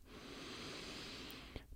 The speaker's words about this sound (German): Wir atmen einmal zusammen tief ein durch die Nase